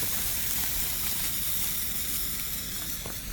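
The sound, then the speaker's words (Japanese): A lit handheld firework hisses steadily, a dense, even sizzle that stays at the same loudness for the whole few seconds, with faint crackles near the end and no voices. “ついた花火って楽しいね”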